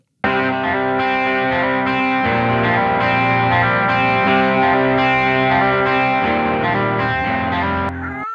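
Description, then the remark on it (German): A short jingle by the band led by a heavily effected electric guitar, with distortion and chorus shimmer over steady sustained chords, loud, with no talking, cutting off abruptly at the end. “Ja, wie ihr gehört habt, ist unsere … auch wieder mit am Start.”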